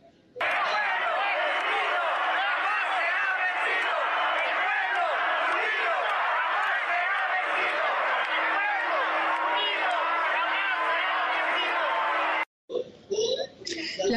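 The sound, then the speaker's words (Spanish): A large, dense crowd of protesters, convened by Chalecos México in front of the Poder Judicial building in Mexico, shouts slogans of support and chants the national anthem in a loud, continuous roar of overlapping voices for about twelve seconds, then cuts off abruptly, followed by brief talking. “las participantes, convocada por Chalecos México, retiró una lona en la fachada del Poder Judicial y colocó una bandera de México que ondeó frente a los asistentes que corearon el himno nacional y gritaron consignas de apoyo.”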